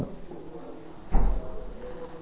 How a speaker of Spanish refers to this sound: Que cierren la puerta, siento que entra el frío de la, del chiflón de ahí, la de vidrio. La allá, ¿no?